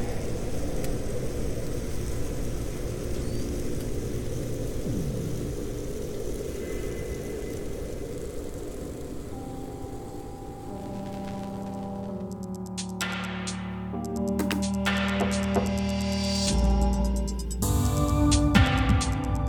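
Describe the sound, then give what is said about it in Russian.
Underwater recordings compiled by Jana Winderen, who has spent her life recording sounds under water: crackling natural sounds of a healthy ocean gradually giving way to human-made noise, with droning engine hum, steady mechanical tones and clanking bursts that grow denser and louder toward the end. “И вот Яна Виндерен, которая всю жизнь записывает звуки под водой, собрала такую компиляцию, из которой слышно, как звуки здорового океана постепенно сменяются антропогенной какофонией.”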